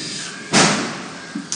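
Firecrackers bang in the background in the old city of Varanasi (Kashi), India: one loud, sharp blast with a fading rumble, followed by a couple of softer, quicker pops against steady outdoor ambience.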